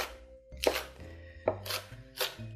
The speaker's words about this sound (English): That's all chopped.